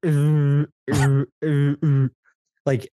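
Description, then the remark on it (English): A voice imitates the garbled team radio transmissions of Ferrari drivers such as Carlos Sainz as played on TV, with loud, unintelligible mumbling: four quick drawn-out vocal bursts, a short pause, then one brief final burst. “but I I think if we're talking about the radio, I think both him and Carlos Sainz's radio, normally their radio transmissions when they play it on TV sounds a little something like this.”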